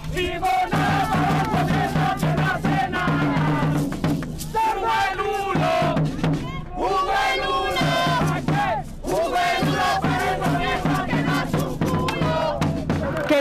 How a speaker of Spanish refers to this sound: el miércoles 28 de abril, la ciudadanía salió a las calles de distintos rincones del país para exigirle al gobierno que tumbe el proyecto de ley que pretende dar luz verde a una nueva reforma tributaria. Así suena el paro.